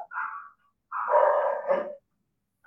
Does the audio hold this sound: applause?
no